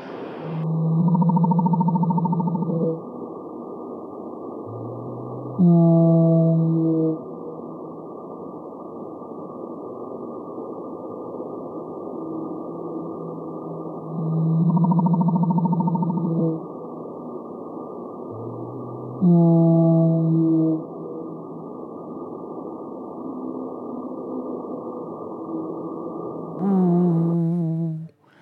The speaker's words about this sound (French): La baleine bleue. Le son de la baleine bleue dans l'océan.